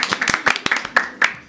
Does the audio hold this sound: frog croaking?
no